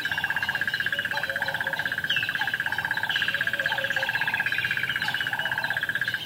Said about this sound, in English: I was fascinated by the rhythmic calls of some of the birds. For example, mm-hmm. the, the crested barbet